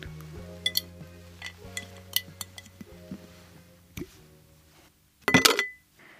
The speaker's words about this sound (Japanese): では今日もこのコースターをガラス瓶に入れて保存したいと思います